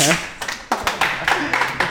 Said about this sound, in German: Ein Applaus bitte